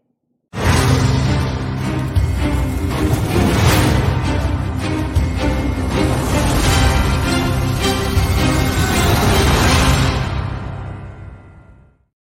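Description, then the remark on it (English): Loud, full game show intro music for a contestant kicks in abruptly and plays steadily for about eleven seconds before quickly fading out, with no voices over it. “So here's his little music.”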